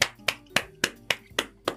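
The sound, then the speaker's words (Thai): Seven sharp hand claps in a steady, even rhythm, roughly four per second, crisp and bright with a quick decay after each clap, with no voices alongside. “เพราะว่านะครับเราได้ทำนะครับสถิติใหม่นะครับคาร์บอนไดออกไซด์อยู่ในอากาศถึง 417 ppm นะครับปรบมือ”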